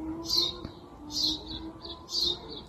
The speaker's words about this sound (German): So was höre ich? Vögel, die zwitschern, der Flügelschlag von Tauben.